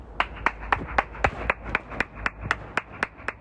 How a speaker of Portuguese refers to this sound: Ela bate palmas. Ela bate no portão.